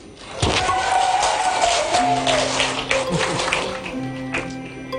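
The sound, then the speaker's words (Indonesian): A single sharp gavel knock rings out near the start as an Indonesian DPR plenary session approves the bill on Law No. 1 of 1974 on marriage, then sustained applause and crowd noise follow, with voices faintly mixed in. “Usai ketok palu yang bersejarah itu,”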